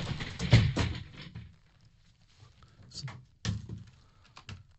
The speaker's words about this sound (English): for the person who asked, finally, did you just fall off your chair? The answer is yes. I still haven't picked it up. It's silly. It's on a plastic thing. It's on wheels. It just flew from underneath me.